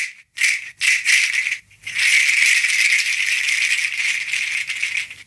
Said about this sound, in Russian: Сейчас вы слышите, как звучит одна погремушка.